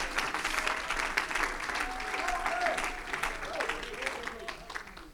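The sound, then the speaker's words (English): A large crowd at a worship gathering claps their hands unto God steadily and densely for several seconds, the applause fairly loud and continuous, with faint voices and a wavering tone rising underneath. “Come on, if you believe it, clap your hands unto God right now.”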